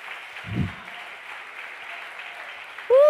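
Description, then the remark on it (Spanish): An audience's loud applause during a Spanish-language sermon, a steady, dense wash of clapping that fills the whole clip, with a low thump early on and a voice cutting in right at the end. “Oh Dios, cuánto le da un aplauso fuerte.”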